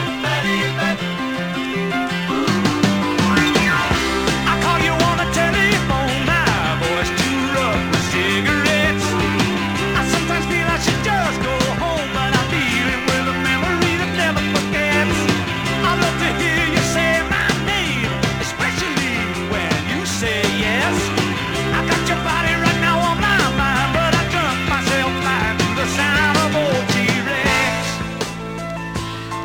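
A rock band song plays steadily at full volume for the whole stretch, with driving bass, chords and a busy mix, and no one talking over it.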